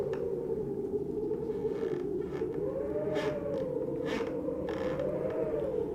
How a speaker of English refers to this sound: The old wooden walls creak. The late night wind whistles through the shingles of the house, and an aura of something wicked lurks in the air.